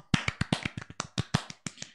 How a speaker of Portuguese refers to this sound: Free Talk acaba o primeiro episódio aqui. Palmas pro Free Talk.